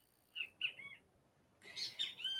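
Birds singing, with two short bright chirps followed after a brief pause by a fuller burst of overlapping trills and warbles. No voices.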